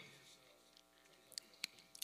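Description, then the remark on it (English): Three or four small, sharp clicks in a speaker's mouth, fairly quiet, coming in an uneven cluster near the end over a soft, low background hum. “Ooh, you can hear that clicking in my mouth.”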